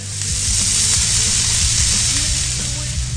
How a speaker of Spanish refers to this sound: Ha llegado el momento de cambiar la actitud. Dejar los inconvenientes de los últimos días atrás y buscar cualquier pretexto para encender el carbón, echar la carne al asador